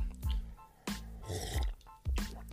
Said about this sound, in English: Make sure I sip a little louder. Not sure if you heard it that time. Mount Kenya coffee.